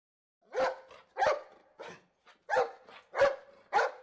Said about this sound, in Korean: 홀에서 알도가 짖으며 질주하는 소리가 들렸다